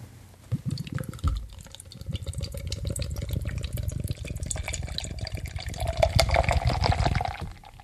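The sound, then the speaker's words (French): Beer, to be split in two, is poured into a glass in the evening in a steady, splashy stream for several seconds, its gurgling pitch rising toward the end as the glass fills. No one speaks. “Bon, alors la SC bière va être un petit peu euh, difficile ce soir parce qu'on va la couper en deux.”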